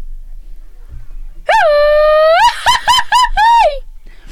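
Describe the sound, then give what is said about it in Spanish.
A loud mariachi grito: a long high-pitched yell breaks into a quick series of warbling, laugh-like bursts and ends in a falling wail, with no other sound around it. “Y ahora sí échanos un grito de mariachi.”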